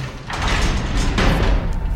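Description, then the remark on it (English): A heavy door mechanism clanks and grinds as it unlocks, followed by a rumbling slide as the door opens, steady and fairly loud throughout with no voices. “It just opened.”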